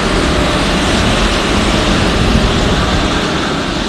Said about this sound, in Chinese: 现在过来的是一辆有轨电车